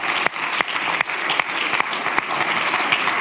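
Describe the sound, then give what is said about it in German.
A crowd claps steadily in sustained applause, a dense wash of many hands with a few sharper individual claps standing out, fairly loud throughout with no voices. “Die Italiener wird auch nach dem Gottesdienst, ja genau, geben dir einen Applaus.”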